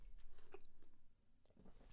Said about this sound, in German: Aber Schmatzen muss so eklig sein am, am Mikro.